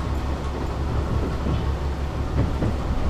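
A KiHa 101-7 diesel railcar on Aterazawa Line train 350D runs steadily along the rails toward its terminus at Yamagata, Japan, in 2009, on a day of heavy snow: a continuous low rumbling drone with faint rattling and no voices, holding an even loudness throughout.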